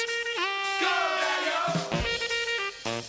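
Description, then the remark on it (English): Loud, blatting brass horns blare a series of sustained, buzzy notes with sliding pitch bends in a swing-style passage of a recorded song, forceful, with no voices. “Listen to the horn farts.”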